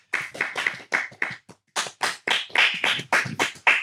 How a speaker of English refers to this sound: a wee round of applause for all of us. I think.